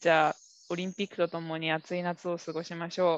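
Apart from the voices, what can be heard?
cicadas chirping loudly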